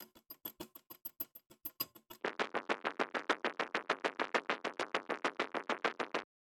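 Two distinct clock-like ticking patterns play back to back: first a sparse, crisp ticking for about two seconds, then a denser, fuller and faster run of regular ticks that stops abruptly.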